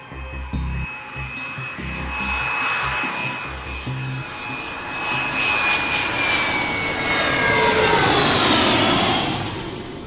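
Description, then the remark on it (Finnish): Airliner jet engines roar steadily with thin, high whining tones over a low rumble as the plane climbs above the clouds toward cruise altitude, the noise swelling gradually louder and brighter toward the end. No voices. “Kone on noussut yläilmoihin pilvien päälle.”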